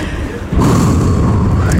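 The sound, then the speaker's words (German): A single heavy black-powder salute shot, fired from a pot-like vessel filled with powder and then ignited, booms out about halfway through, a loud, deep blast whose low rumble keeps rolling and echoing to the end. “Also man muss hier kurz mal etwas dazu sagen, bevor schon wieder der nächste Schuss fällt.”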